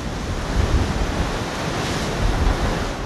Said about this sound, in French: Voilà, comme vous pouvez l'entendre, le vent s'est levé. C'est le Mistral que vous entendez ici. On est à Marseille, au pied de la station marine d'Andoum, le centre océanographique de Marseille.